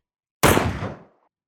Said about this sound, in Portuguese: De onde estava, Manuel ouviu um som de disparo.